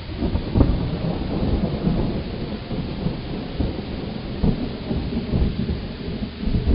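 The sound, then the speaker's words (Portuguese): Steady heavy rain fills the scene with a dense hiss while low, rolling thunder rumbles continuously underneath, swelling in a few deeper bursts. No voices, just an ongoing storm. “os ânimos estavam exaltados e relâmpagos caíam dos céus.”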